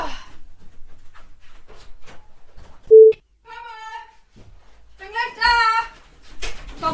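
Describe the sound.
A telephone rings with a short, loud electronic beep followed by warbling tonal bursts, mixed in with people talking quietly.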